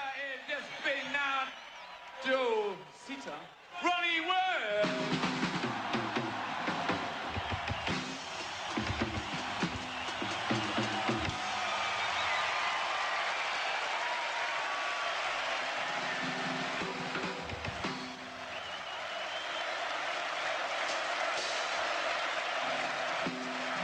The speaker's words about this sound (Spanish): Muchos recordarán, ahí están unos golpecitos de … y los gritos de la gente. Ahí va, mira.